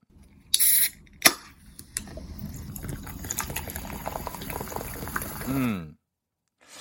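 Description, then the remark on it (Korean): A drink is opened with a short hiss and a sharp crack, then poured in a steady fizzing, gurgling stream for several seconds, its tone rising as the glass fills before stopping abruptly. “음료입니다 음료 예 음료인데 요게 무슨 음료인지를 몰라요, 우리가. 무슨 음료인지를 맞춰주시면 되겠습니다. 요거 좋아하시는 분들은 느낌 오죠? 그, 따, 따르는 소리의 느낌 오지 않습니까?”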